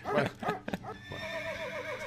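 A horse neighs loudly, a few sharp snorting bursts giving way to a long, shaky, quavering whinny that lasts about two seconds.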